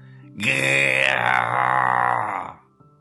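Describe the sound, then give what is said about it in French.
A person voices a loud, sustained roar in imitation of a lion, one drawn-out growling cry lasting about two seconds, then fading into quiet. “Ça, c'est le cri du lion.”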